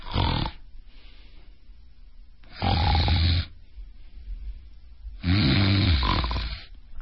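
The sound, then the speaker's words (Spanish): A person imitates snoring with an apnea pause: three loud, rasping snorts separated by quiet gaps of a couple of seconds, the last snore longer and more drawn out. Clear, with no talking. “Hazme ronquido, apnea, ronquido.”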